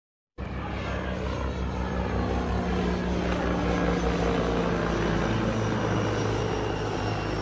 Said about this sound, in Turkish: Bu yaklaşık 2 gün öncesine ait bir videoydu. Atak helikopterlerimiz. Atak helikopterlerimiz de Rodos bölgesinde devreye atmakta.